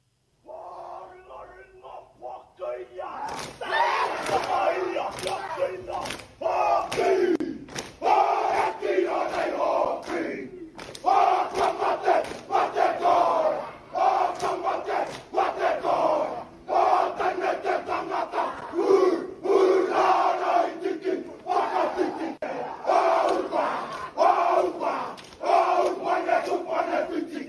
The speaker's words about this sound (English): That was the haka that Roger Tuivasa Sheck received from the Kiwi League players who were over there in Australia